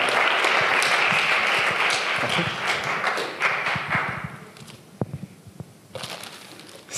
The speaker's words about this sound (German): Go for it, gebt ihm einen Applaus.